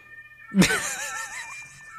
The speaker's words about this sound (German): du kannst auch einfach lauter reden als die Sirenen.